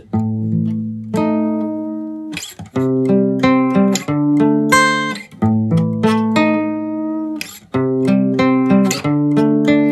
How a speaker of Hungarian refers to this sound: De én most hoztam egy, egy hamis gitárt